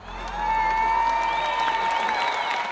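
A concert fan screams over a roaring, cheering crowd, the shrill voice rising and wavering above sustained applause.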